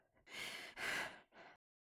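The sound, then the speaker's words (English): A voice imitates a character panting on stage after the music stops at the end of a song: three heavy, breathy exhales in quick succession, fairly loud, the last one shorter, then silence. No words are spoken. “So there's like a moment when the music stops and Bane Raven is panting”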